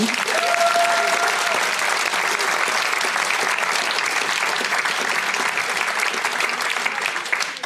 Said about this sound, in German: Also dafür dürfen wir nochmal einen Applaus geben.